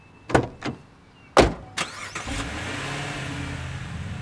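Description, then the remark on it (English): A few sharp thuds like car doors closing, then a car engine cranks and turns over, settling into a steady low idle that swells slightly as the car begins to pull away to drive back to Beloit. No one speaks. “We all hugged and said hi and all that, and we put her in the car and commenced to drive back to Beloit.”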